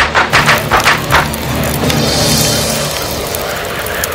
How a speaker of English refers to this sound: Let me light up the sky. Without thinking twice, Sven filled his trunk with firecrackers and flew up high to burst them. It was beautiful, but suddenly...